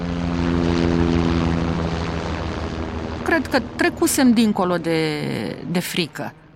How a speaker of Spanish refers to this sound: Uh, de repente, el ruido de un helicóptero que se acercaba ahogó todos los gritos y abucheos.